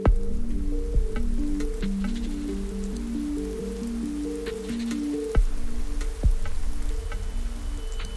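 Steady rain patters softly in a misty, humid forest at night, with scattered drops ticking through it, while a low, slowly shifting tonal drone hums underneath. No voices, and the rain holds an even, moderate level throughout.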